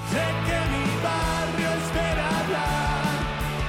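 A rock band song plays loud and continuous, with a driving bass line, dense distorted guitars and a shouted-sounding vocal edge filling the mix from start to finish.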